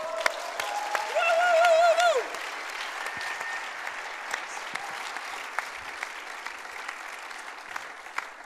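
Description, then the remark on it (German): An audience claps steadily throughout as two new leaders of Bless Bern are called onto the stage: a dense wash of applause, with a loud whistle rising and falling early on before the clapping settles into a sustained, even roar. “Komm, wir geben den Applaus.”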